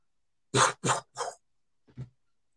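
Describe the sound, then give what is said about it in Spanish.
A voice imitates gunfire with three loud, sharp mouth-made bursts in quick succession, followed by two softer, shorter pops after a brief pause. “Pero en eso se oye un disparo.”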